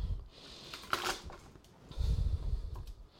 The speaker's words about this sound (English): Push down on the garlic. Just flatten it, squish it. That will crack the skin, which will make it come off really easily.